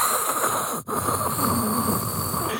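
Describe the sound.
A voice imitates heavy, hissing breathing through a respirator mask, a steady rasping rush with one brief break about a third of the way in, fairly loud.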